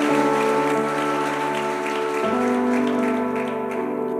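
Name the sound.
audience applause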